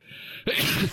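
A single abrupt sneeze bursts out after a brief quiet breath, sharp and loud with a noisy, airy spray that fades quickly.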